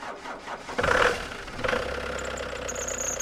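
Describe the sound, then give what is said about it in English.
A vintage car engine sputters and catches, then settles into a steady idling rumble with a faint high whine, with no voices. “By the 1920s, cars were getting really popular in San Francisco.”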